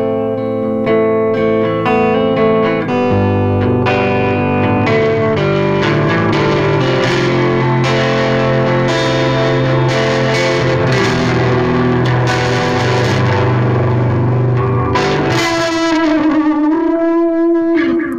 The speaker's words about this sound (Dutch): Ja, eigenlijk veel cooler, hè? Gewoon korrel van de, ja, de versterker zelf die overstuurt. Het is eigenlijk absurd dat we dat niet allemaal gebruiken. Het is veel toffer.